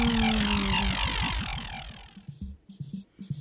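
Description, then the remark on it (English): A steady honeybee buzz drones for about two seconds with a wavering pulse, then breaks into a string of short, choppy buzzing bursts, with no voices. “Perhaps I'll be a buzzing bee who guards the hive.”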